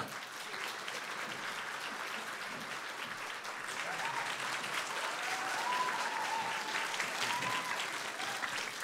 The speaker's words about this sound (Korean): 큰 박수로 맞이하겠습니다.